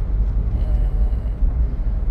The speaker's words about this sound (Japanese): 今ちょっとなんかブーンと音してると思うんですけど、車の中で